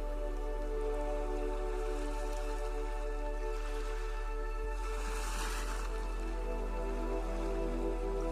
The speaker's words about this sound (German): Nehme einmal ganz genau das Rauschen des Meeres wahr und fühle die Ruhe dieses Ortes.